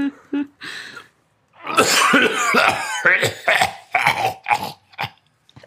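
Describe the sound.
A person imitates a deep, rattling, demonic-sounding cough: a couple of short rasps, then a long, harsh series of gravelly, growling hacks bursting out loud with no other talk.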